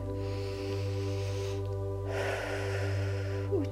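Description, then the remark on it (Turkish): A big, deep breath drawn in, a breathy rush lasting over a second, set against a steady, low humming drone with no one speaking. “Ve göğsümüzdeki tüm kaslar, sinirler, ve yüreğimizi sıkan tüm konular hepsi kocaman bir nefeste”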